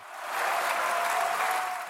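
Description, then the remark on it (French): Loud, sustained applause from deputies rising on each side of the National Assembly chamber to celebrate their victory in a 196 to 183 vote, a dense wash of clapping hands that stays steady throughout with no voices standing out. “Pour 196 contre 183 un tonnerre d'applaudissements et des députés qui se lèvent de chaque côté de l'hémicycle pour célébrer leur victoire.”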